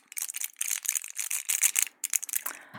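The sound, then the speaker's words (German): Crisp crinkling and rustling of a tablet blister pack, a steady run of irregular crackly bursts of plastic and foil with brief pauses, heard alone without any voices. “Das Ganze war das Rascheln oder Knistern von einer Packung Tabletten.”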